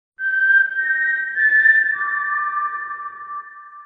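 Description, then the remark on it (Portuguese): A clear, sustained whistled tune of four long notes, Rue's famous four-note song from the Hunger Games story as it comes from a mockingjay, stepping up in pitch before settling on a lower final tone. It is fairly loud, with no voices. “E daí, quando ela tá procurando, ela ouve uma canção de quatro notas da Ru saindo da boca de um Mokinje, eu acho que é assim que se fala.”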